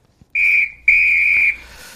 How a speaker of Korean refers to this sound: 저한테 경고하는 것 같네요. 호루라기입니다. 노래 듣다 이 소리 들리면 이게 보물소리니까요.